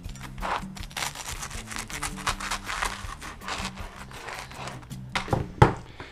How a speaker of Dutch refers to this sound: Nou, ik heb hem op een plankje gelegd. Mesje heel eventjes in de bekende tosti. Driehoek snijden.